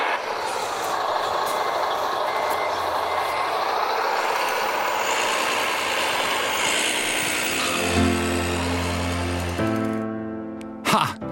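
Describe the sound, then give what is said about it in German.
A small remote-controlled model truck, driven with joysticks, whirs along with a steady electric motor hum, then sounds a series of reversing beeps near the end, fairly loud, with no talking. “Der linke Joystick zum Vorwärts-Rückwärts fahren, der rechte zum Lenken, rechts, links und hier machst du den Motor an.”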